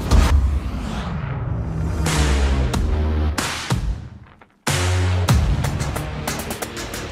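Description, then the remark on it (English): A pre-production pickup truck with Multimatic DSSV shocks roars along at speed, its loud engine climbing and shifting through gears, easing off briefly, then surging hard again with a rough, rumbling drone. “We just inspired this pre-production truck you see behind me. Let's go see what it'll do.”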